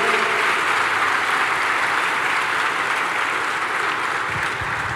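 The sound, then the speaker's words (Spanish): A church audience applauds in honor of God, a dense, even wash of many hands clapping at constant loudness for the whole stretch, with no voices rising above it. “Un aplauso de honra y de honor a nuestro rey.”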